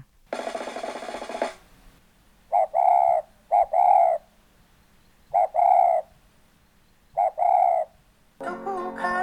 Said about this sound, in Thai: ได้ยินไปเมื่อกี้ก็คือเสียงของนกเขาใหญ่ค่ะ แล้วนกเขาใหญ่เนี่ย ไม่ได้ร้องแค่จุกกรูนะคะ ยังร้องจุกจุกกรูด้วยล่ะค่ะ